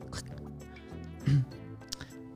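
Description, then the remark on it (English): A voice imitates a phone being picked up off the hook with a short mouth pop, followed by a couple of faint clicks; no words are spoken. “I got to I'm gonna make a sound for picking up the phone off the hook.”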